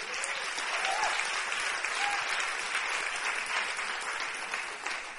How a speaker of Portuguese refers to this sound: Você pode aplaudir o nome do Senhor por essa célula aí?